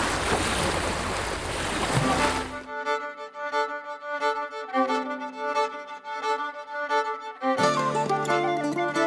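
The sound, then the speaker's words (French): Loud rushing ocean waves wash around a sailing boat for the first couple of seconds, then cut off abruptly as sustained, pitched musical tones take over. No one speaks. “Bonjour à tous et bienvenue sur mon bateau qui vogue sur l'océan couleur bleu salé.”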